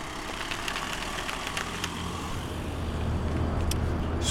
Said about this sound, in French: Donc, euh, et la tarik qui passe avec sa camionnette et son petit café.